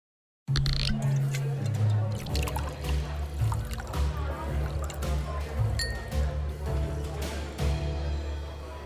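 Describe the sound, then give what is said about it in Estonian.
Liquid pours steadily into glasses for several seconds until they are full, with a trickling, gurgling sound and an occasional light clink of glass over a low background hum. “klaasid on täis valatud.”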